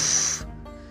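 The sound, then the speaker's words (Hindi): A voice imitates a ghost character's loud burp in a story told in Hindi: one short, forceful, breathy burst, trailing off into a low, rough rumble after about half a second. No talking. “ये देख मेरी डकार हाँ करके उसने डकार ली बड़ी जोर से डकार ली उफ”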